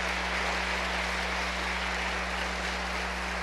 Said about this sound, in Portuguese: Se você crê nisso, aplauda o Senhor.